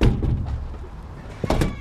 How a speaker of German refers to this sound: öffnet die Tür zu seinem Haus.